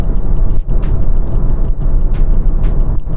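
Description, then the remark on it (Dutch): Steady low rumble of a car moving, heard from inside the cabin, with continuous road and engine hum and a few brief hissy bursts of air or tire noise. “En nu zit ik in de auto, misschien hoor je dat ook wel op de achtergrond.”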